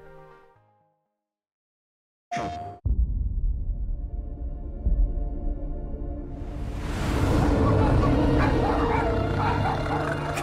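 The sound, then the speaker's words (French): After a brief near-silence, Cosmo, the Russian cosmonaut dog from a new game trailer, barks and whimpers over a loud, dense wash of sound that swells into a bright, hissing roar toward the end. “toujours prévu pour le 26 octobre, et qui se présente avec une nouvelle bande-annonce où vous allez faire la rencontre de Cosmo, le chien cosmonaute russe.”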